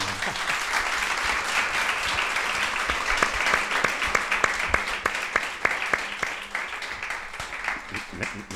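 An audience applauds steadily after a theatre play, a dense wash of many hands clapping with sharp individual claps standing out, sustained at an even level for the whole stretch.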